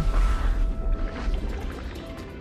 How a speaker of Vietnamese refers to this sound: Phượng Hoàng lão đảo, nghiêng cánh, khiến cho người anh đang cưỡi trên lưng rồi tỏm cả người lẫn vàng bạc châu báu xuống biển.